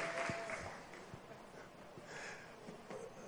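A crowd claps steadily for a few seconds, a dense, fairly quiet patter of many hands with a few sharper individual claps standing out, and no talking over it.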